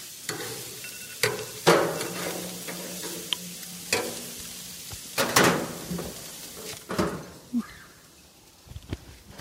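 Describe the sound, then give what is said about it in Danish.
Food sizzles in a frying pan with a steady crackling hiss as it is about to be turned over to cook two minutes on the other side, broken by several sharp clatters and scrapes of utensils against the pan, with no one speaking. “Ui, der kom lyden. Så skal vi vende dem om.”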